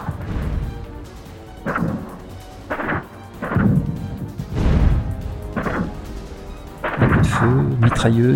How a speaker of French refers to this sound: explosion étouffée, les forces spéciales étaient maintenant au contact de l'ennemi, et les tunnels sécurisés voyaient défiler commando sur commando.